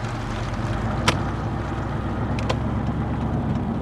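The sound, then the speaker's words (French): A steady, low engine drone and road rumble from inside a car driving at night on country roads with headlights on toward the motorway, continuous throughout, with a couple of faint clicks and no voices. “rentrent en voiture d'une soirée entre amis”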